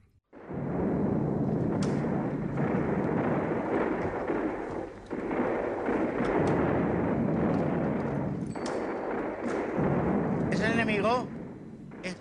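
sound effect, war sound effects

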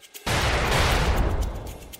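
sound effect, fireworks explosions

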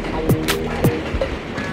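vehicle, train passing by

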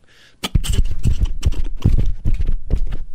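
animal, horse hooves clip-clopping

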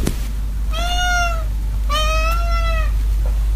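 animal, cat meowing

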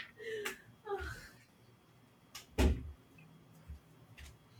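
household object, door being closed

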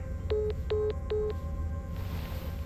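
signal or alarm, telephone call hanging up

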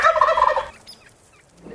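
bird, wild turkey gobbling

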